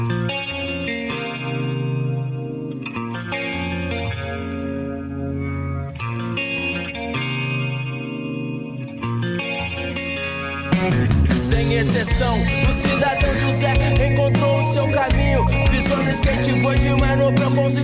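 rap song

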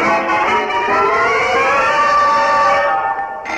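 electric doorbell ringing

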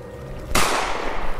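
gunshot sound effect

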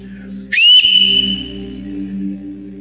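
loud human whistle

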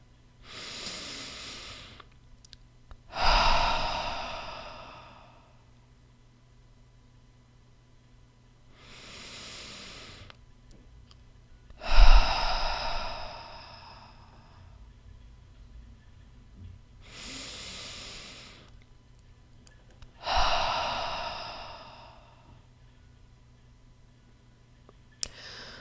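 breathing in through nose

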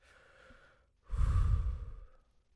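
deep deliberate breathing

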